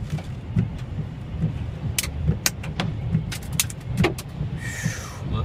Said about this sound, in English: His car is shaking around, and he's like, "Oh, I, oh no, the car might be uh, moving forward a bit."